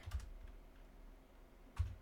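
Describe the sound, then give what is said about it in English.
Two sharp keystrokes on a computer keyboard, spaced well apart, with a faint background hum and no one speaking. “If my keyboard will work.”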